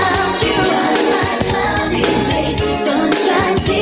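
A recorded R&B song plays loud and steady, with a full mix of layered instruments and a rhythmic beat carrying on throughout, no talking over it.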